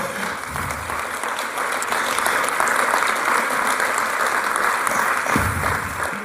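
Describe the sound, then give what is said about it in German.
An audience claps steadily, a dense wash of many hands that holds an even, fairly loud level for several seconds, with no one talking over it. “Wir machen es mit dem Klatschen so, weil wir werden viel klatschen heute Morgen, dass wir immer nach, wenn eine Gruppe fertig ist, dass wir dann äh, dürfen klatschen.”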